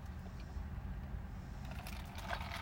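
A steady low rumble fills the inside of a car, with faint rattles and soft clicks surfacing toward the end and no voices.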